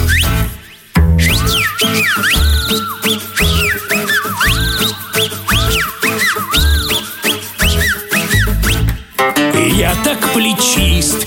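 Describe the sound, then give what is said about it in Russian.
A loud, shrill melodic whistle swoops up and down in quick repeated phrases over a bouncy musical backing with a steady bass beat. “Завидуют мне боксер и самбист. А все почему? У меня суперсвист.”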